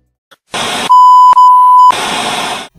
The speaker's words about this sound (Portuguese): Muita notificação.